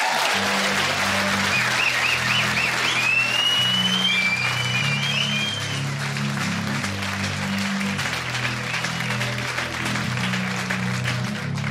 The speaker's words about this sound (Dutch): Geef hem een klap met je handen. Stamp met je voeten.